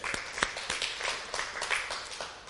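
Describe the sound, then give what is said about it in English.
A church audience claps for the Lord together in a dense, steady burst of applause, many overlapping hand claps with sharp transient spikes throughout, moderately loud with no talking over it. “Clap for the Lord.”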